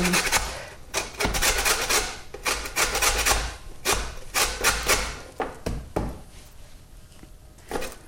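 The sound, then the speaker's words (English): Food is rubbed quickly against a fine grater, a rapid series of bright, scratchy rasping strokes that carry on steadily, then thin out into a few quieter scrapes near the end. “Now I'm grating it on quite a fine part of the grater.”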